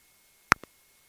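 Two short electronic telephone beeps in quick succession signal an incoming phone call during a live broadcast, the first louder than the second, with quiet silence around them and no voices.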